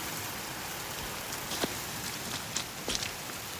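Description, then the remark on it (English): Steady, dense driving rain hisses without a break, with a few sharper drops pattering loudly against a surface. No voices, just the continuous downpour. “marching miles into the Hunua Ranges through driving rain.”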